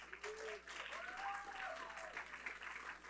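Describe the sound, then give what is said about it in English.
A crowd applauds steadily with dense, continuous clapping, and a few voices call out and cheer over it. “Can we give everyone one more round of applause?”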